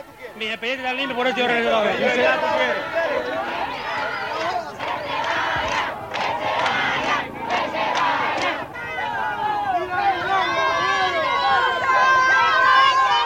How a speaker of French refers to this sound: Ça y est, c'est la ruée. La bousculade, les coups commencent à pleuvoir. L'homme est à terre, il est roué de coups, de coups de pied, de coups de poing.